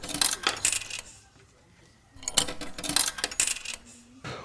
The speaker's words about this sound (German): Steht an dem Automaten irgendwas dran? Tokens hier. Dann lasse ich meine Tokens hier. Schmeiß sie ein.